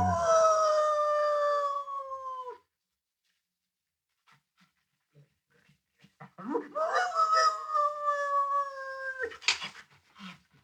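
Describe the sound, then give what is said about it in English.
Sheriff Skinner's dog, Jacko, howls twice, each a long, loud, wavering wail; the first trails off downward, then after a few quiet seconds of faint scuffling a second howl rises and holds before breaking off. “Glazier on his loss, the sheriff's dog.”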